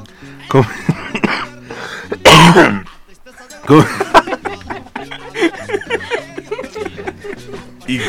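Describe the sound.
Two loud bursts of coughing, followed by rough throat clearing, cut through people talking in the background.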